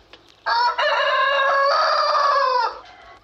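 A rooster crows once, loud, a single drawn-out call lasting about two seconds before cutting off, with no talking around it.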